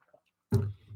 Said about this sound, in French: je vais prendre une gorgée d'eau.